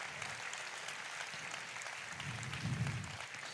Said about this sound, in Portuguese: Aqui, por exemplo, nós temos 14 redes de pastoreio. 14 redes. Uma salva de palmas para esses pastores.